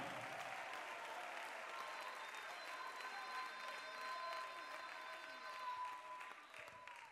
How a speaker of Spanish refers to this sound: ¿Cuántos lo creen conmigo, hermano? Apláudale fuerte. Dale gloria, dale gloria.